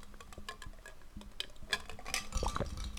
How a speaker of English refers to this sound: If you guessed a Poppi in a wine glass, ding, ding, ding, ding, ding, we have a winner. Yes, that's right. I'm drinking a Poppi.